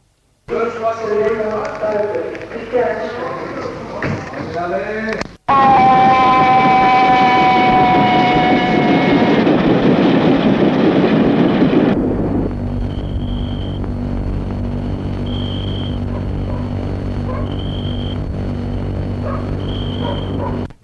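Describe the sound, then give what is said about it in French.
Muffled voices give way to a loud train rumbling on rails with a high, sliding metallic whine, then a steady low drone broken by short, evenly spaced high beeps. “Il prenait le train tous les samedis soirs vers les 21 heures.”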